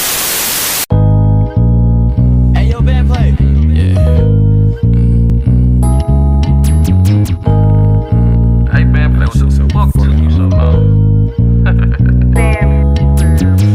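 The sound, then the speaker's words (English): A short burst of static gives way to a loud hip-hop music video beat with heavy, sustained bass and synth chords changing in a steady rhythm, with no talking. “I would like to do a live review of that … play video because that joint is too hard”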